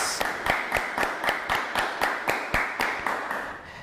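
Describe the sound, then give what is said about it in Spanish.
Steady, rhythmic clapping from a crowd, hands striking together in unison about four times a second over a bed of noisy applause, with no talking. “Fuerte aplauso a todos.”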